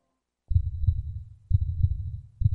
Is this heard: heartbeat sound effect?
yes